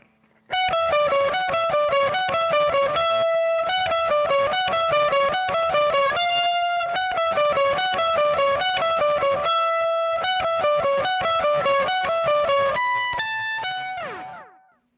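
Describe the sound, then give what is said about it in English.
An overdriven electric guitar, played through two amps with a Blues Driver overdrive pedal and a Carbon Copy analog delay pedal, plays a sustained, singing lead solo, loud, with no talking. A slight reverb comes from the Fender amp's onboard reverb. The notes trail off at the end into fading echoes. “So let's give a listen to the sound of our two amps, our blues driver, and kicking on our carbon copy for a solo tone.”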